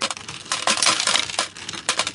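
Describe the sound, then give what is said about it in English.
Coins drop and clink against one another in a steady, jangling cascade of bright metallic taps, fairly loud, with no voices. “That's because during the pandemic, coins are not circulating.”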